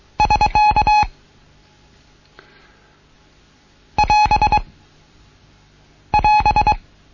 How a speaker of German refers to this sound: Verkehrsende. Wir erkennen das Bruchendezeichen. wenn der Spruch zu Ende ist und das Verkehrsendezeichen. Das wäre das Neue heute.